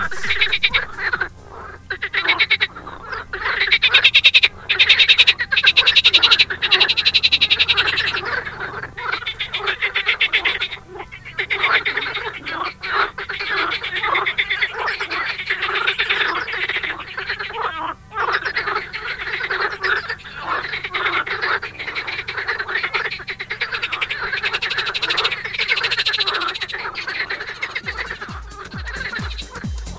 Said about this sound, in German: So schön klingt unsere Heimat. Das Frühjahrskonzert der Teichfrösche im Botanischen Garten in Bonn, der grünen Oase gleich neben der Autobahnauffahrt Poppelsdorf.